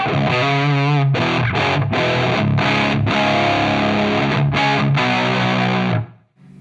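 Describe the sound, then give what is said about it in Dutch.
A thick, saturated fuzz-drenched electric guitar plays a loud riff of sustained, buzzing chords with short choppy breaks between them, then rings out and fades at the end. No one talks. “Maar met een fuzz. Krijg je sowieso wat meer dat plakkerige sound mhm, waar ik mhm.”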